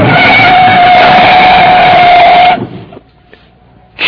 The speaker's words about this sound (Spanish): Chihuahua. Ya atropellé a ese pobre hombre.